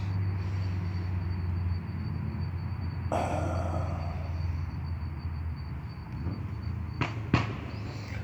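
Cars pass in a steady rushing roar of traffic with a low engine rumble, a louder whoosh swelling partway through and a couple of sharp knocks near the end.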